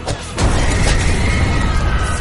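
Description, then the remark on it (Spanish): A loud explosion bursts in after a brief moment, then a heavy, rumbling roar carries on to the end with no voices over it. “No mames, esa explosión se acabó en un chingo de arejitas, güey.”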